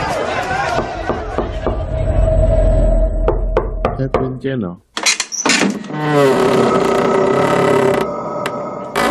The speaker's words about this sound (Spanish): La llama de la vela del doctor Lister titilaba en una de las ventanas del University College Hospital cuando de repente escuchó alboroto. Minutos más tarde llamaron a la puerta donde Lister hacía guardia